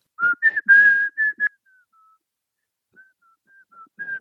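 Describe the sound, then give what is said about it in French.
A person whistles a short melody close to the microphone, a run of bright pitched notes that start strong, then thin out into faint, broken tones before a final louder phrase. “Et là, je vais essayer de siffler dans le micro pour voir si ça marche pour vous faire la mélodie.”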